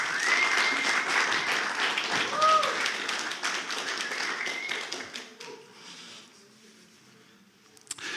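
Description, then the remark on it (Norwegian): An audience applauds in a dense, steady burst of clapping with a few cheering voices rising over it, then the applause thins out and fades to near silence over the final few seconds. “Gi en applaus.”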